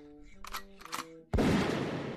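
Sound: shotgun blast sound effect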